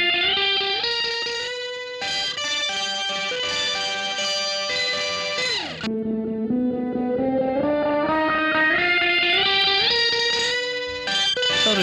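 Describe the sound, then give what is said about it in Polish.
A loud, saturated electric guitar on reverb send track 69 in recording software holds sustained notes, drops with a slide midway, then climbs in stepwise phrases, heavily effected and ringing continuously with no voices. “Jak widać, na tej wyserowanej ścieżce jest i ta gitara elektryczna.”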